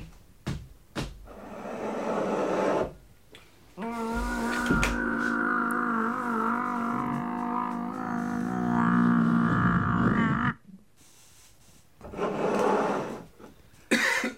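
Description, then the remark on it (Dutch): An elevator hums along between floors, a steady droning mechanical whine lasting several seconds, bracketed by clunks and rustling as it starts and stops; it arrives at the third floor. “Kunnen we ook de lift nemen misschien?”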